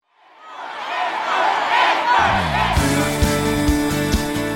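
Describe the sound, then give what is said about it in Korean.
A large concert crowd roars, cheering and shouting as the noise swells up quickly; about halfway through, loud music with a steady beat kicks in beneath the continuing cheers. “무대 위에서도, 무대 아래에서도 많이 그리웠던 이 소리. 목이 터져라 외치고 듣고 싶었던 이 소리.”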